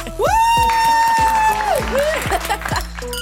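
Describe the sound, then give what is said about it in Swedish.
An inserted sound effect: a loud burst of crowd applause and cheering, with a long sustained whoop or whistle riding over the clapping for about three seconds before it thins out. “Vänta, vi måste lägga in applåder.”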